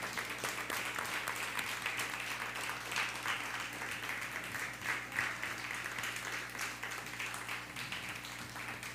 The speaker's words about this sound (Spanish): Vamos a dar un fuerte aplauso a todos. Uno, dos, tres.